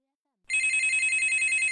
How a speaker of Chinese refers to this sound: 江大林怀里的手机突然响了，吓了他一跳。